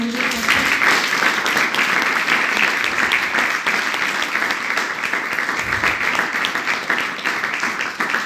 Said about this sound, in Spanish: ¿Cuántos pueden dar un aplauso